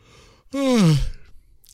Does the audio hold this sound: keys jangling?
no